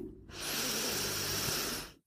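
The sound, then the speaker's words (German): A deep breath in and out during a breathing exercise rushes steadily for nearly two seconds, an airy, breathy sound that swells quickly and fades at the end, with no talking. “Erstmal ein und wieder aus.”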